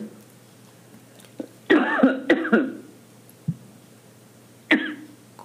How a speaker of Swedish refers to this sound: Ursäkta, jag fick en loppa i min hals. Nej, nej. Hosta på du.